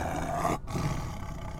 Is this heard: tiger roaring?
yes